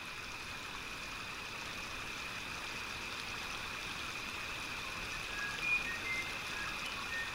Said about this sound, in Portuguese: Estamos à beira de um riacho no interior da mata. O brilho suave da lua dá um aspecto mágico a esse lugar.